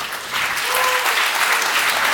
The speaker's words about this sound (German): Geleite diesen wunderschönen Menschen nochmal auf die Bühne. Applaus für den schönen Menschen mit dem Bart.